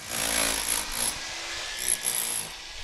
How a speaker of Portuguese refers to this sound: Nas janelas de guilhotina, com os vidros tilhaçados, nas cenouras, peras, laranjas e melancias, desenhos chamuscados na parede de uma sala no reboco às cores rosa, azul, amarelo e verde que o martelo pneumático está agora a arrancar.